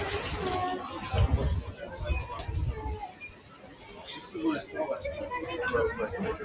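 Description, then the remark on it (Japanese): Bustling outdoor crowd ambience at the Tsukiji Outer Market, a fish market, with overlapping chatter, footsteps and general street hubbub at a steady moderate level; some voices pass by, and a low rumble swells briefly near the start. “築地場外市場から散歩中継”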